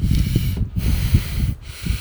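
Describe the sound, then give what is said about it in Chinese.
A voice imitates the loud, rough breathing of a coughing person heard in quiet moments during a show: two long, raspy, snorting breaths, each with a gritty low rumble and hiss, separated by brief pauses, loud and with no talking. “然后他除了咳嗽以外，他呼吸声也很粗啊，就是在安静的时候，就这这，”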